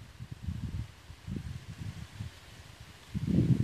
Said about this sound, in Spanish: La caricia de la brisa cuando roza las hojas, las praderas.